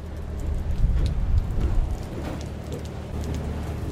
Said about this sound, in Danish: Nu regner det altså. Jeg er så glad for, at jeg ikke lige hænger op i den der mast i det her regnvejr lige nu.